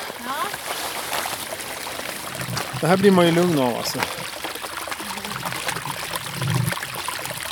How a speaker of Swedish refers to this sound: Åh oh shit, vilken härlig liten bäckfåra.